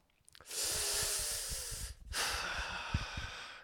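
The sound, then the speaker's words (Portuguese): Two long, harsh hissing breaths drawn sharply through clenched teeth by someone who feels cold, each lasting over a second with a brief pause between, fairly loud. “Mas o som, pá, o, o, o pior som do mundo, malta, é quando, quando aquela malta que tem frio e faz este som.”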